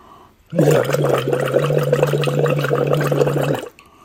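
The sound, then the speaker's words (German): A steady hummed tone is blown through a voice-training bubble tube into water, making continuous bubbling that lasts about three seconds, then stops abruptly. “Ich puste gerade in mein Blubberrohr.”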